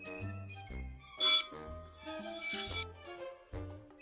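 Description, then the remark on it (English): A school bell rings out in a series of sustained, tonal chime notes, punctuated by two bright, metallic bursts of ringing; moderately loud, with no one talking. “Ugh, what's that sound? Ugh, is that the bell?”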